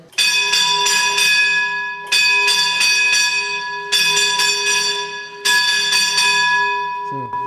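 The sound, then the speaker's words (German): A mine shaft signal bell rings out loudly in four bursts, each a rapid cluster of bright, clanging strikes whose metallic overtones ring on between groups. It is the 4-4 signal releasing the cage after the gate is closed, so the cage can travel away. “Und jetzt gebe ich den Korb frei, das heißt 4-4, das heißt Gestellfreigabe. Da gibt es zurück und dann fährt der Korb weg.”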